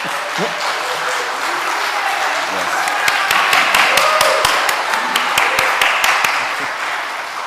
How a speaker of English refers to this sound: Um, let's just go and give everyone another round of applause, please.